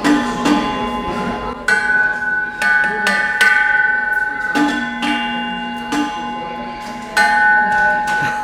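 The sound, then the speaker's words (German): An umbrella is pushed into a metal stand in a café, setting off a series of ringing metallic clanks, each strike leaving a sustained bell-like tone that lingers before the next knock. “Dann wollte ich den hier in das Gestell reintun und schon klingt es.”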